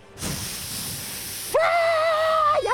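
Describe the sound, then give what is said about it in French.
A voice imitates a dragon breathing fire: a loud, breathy hissing whoosh for over a second, then a sudden shift into a strained, high-pitched roaring screech that continues to the end. “Et alors le dragon, il leur crache du feu”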